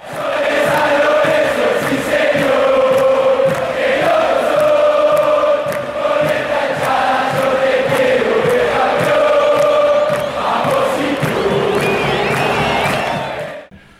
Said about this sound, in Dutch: Ja, ze, ze staan daar onder die tribune, hmm. logisch, want dat is de schaduw. En dan eh, staat er inderdaad het eh, dweilorkest. Alleen is dit een soort ruiger dweilorkest.